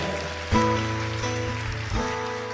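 A church audience applauds loudly for "the team of Jesus Christ" in a dense, continuous wash of clapping, with sustained keyboard chords ringing underneath that shift at two points. No one speaks.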